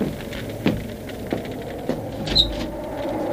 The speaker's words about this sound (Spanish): Yo abro la puerta.